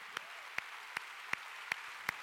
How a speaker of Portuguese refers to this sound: Quem pode dar um aplauso ao Senhor Jesus? Aplauda bem forte ao Senhor, aplauda, aplauda ao Senhor.